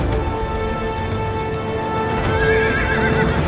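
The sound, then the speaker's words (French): A horse whinnies with a wavering high-pitched cry over the steady clatter of galloping hooves, the rhythmic pounding loud and continuous throughout with no voices. “Sans réfléchir, elle fonce sur lui. Au galop, au galop”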